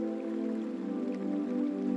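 Flowing river water murmurs steadily throughout, a continuous, even wash of sound at moderate loudness with soft drips and splashes woven in, and no voices.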